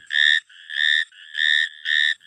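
A frog calling: four evenly spaced, high-pitched, buzzy chirps, each about a third of a second long, in a steady rhythm with short gaps between them. No one speaks.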